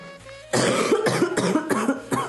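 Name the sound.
coughing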